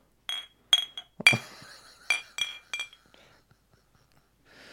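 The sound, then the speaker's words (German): Several bright glass clinks ring out in quick succession as beer glasses are knocked together in a toast, each with a short ringing tail, followed by faint soft rustles. “Stimmt, da muss man dann auch immer sowas hier. Ja, ey. Zum Wohl hier, ne?”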